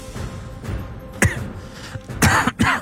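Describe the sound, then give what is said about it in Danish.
A person coughs, one sharp cough followed after a pause by two quick, harsh coughs in succession, with no talking. “jeg er helt fyldt op med host.”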